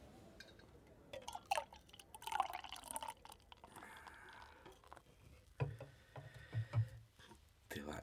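Yebisu beer pours into a glass for a toast, a splashing, gurgling stream with bright fizzing clinks, followed by a few low glugs near the end; faint talk sits in the background.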